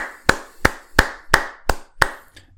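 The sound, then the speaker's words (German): Brief applause made of about six slow hand claps, spaced evenly and sharp, each one crisp and fairly loud. No one is talking. “Kurzer Applaus, meine Damen und Herren.”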